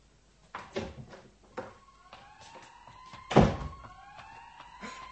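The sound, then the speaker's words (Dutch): A police siren wails, its gliding tone rising and falling steadily, while several heavy thumps and knocks sound, one especially loud near the middle. “Mensen, daar heb je zoiets als een politie.”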